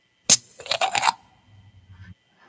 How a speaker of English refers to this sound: Sounds like a soda bottle or a beer bottle opening. There, there, you go. It's a twist off cat, folks. There you go. Twist off cat.